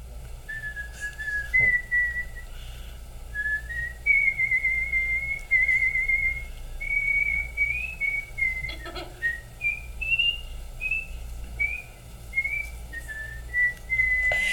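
Someone whistles a slow, flowing melody up close, clear, pure notes gliding and stepping between pitches for about fifteen seconds, with no talking and only a faint low hum behind it.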